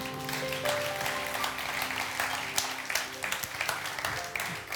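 An audience at a worship service applauds the Lord steadily, a dense wash of many hands clapping at once, sustained and fairly loud for several seconds, with a held musical tone faintly underneath.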